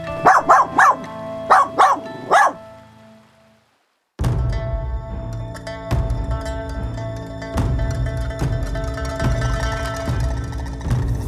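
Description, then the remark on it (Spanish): A puppy yaps in a quick run of about five high-pitched barks and yips, falls silent for a moment, and then music begins. “Cachorro, juega solo un rato.”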